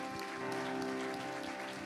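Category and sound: crowd, audience hand clapping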